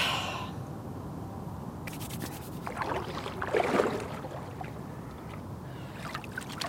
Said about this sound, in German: Ich reibe immer die Hände, das ist, ein bisschen ein Ritual. Und dann werden sie wärmer und dann muss ich mich ganz auf mich konzentrieren, weil es ist echt kalt und das ist ja eine Herausforderung für Körper und Geist.